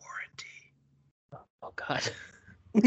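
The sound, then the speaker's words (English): Breathy huffs and rasping exhales pushed right into the mic in a few uneven bursts, a voice imitating heavy breathing down someone's neck, with brief pauses between and a louder gust at the end. “breathing down your neck and going.”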